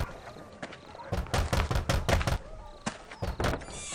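A series of sharp, loud knocks pounds on a house door in quick bursts as a captain demands it be opened, several raps close together, then a short pause and a few more, with no talking.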